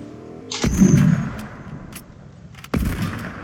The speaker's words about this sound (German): Ah, ein Schuss mehr unterwegs.